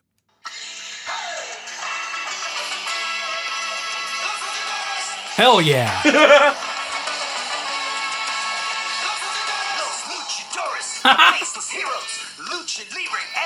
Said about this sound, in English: I totally remember this show. yeah. Man. Fox Kids was nuts in the 90s. that was the theme song for Los Luchadores.